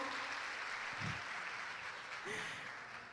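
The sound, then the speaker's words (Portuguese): A crowd at an evening church service applauds the Lord steadily, a dense wash of many hands clapping at a fairly even level throughout, with a couple of brief cheers rising above it. “Queria pedir que você aplaudisse o Senhor.”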